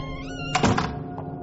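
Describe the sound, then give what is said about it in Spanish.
A single dull thunk of a door being pushed shut by hand lands over a steady low hum, followed by a brief muffled rattle as it settles. “le hizo un gesto para que se acercase y cerrase la puerta con la mano.”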